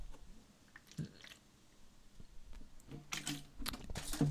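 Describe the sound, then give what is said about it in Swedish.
Someone drinks water: quiet wet sips followed by a few louder gulps and swallows toward the end, with no talking. “Jag dricker jag lite vatten.”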